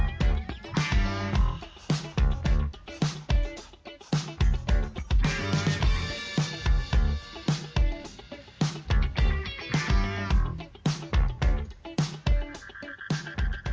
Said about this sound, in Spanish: Así que bueno, vamos a escuchar un temita y ya venimos con la entrevista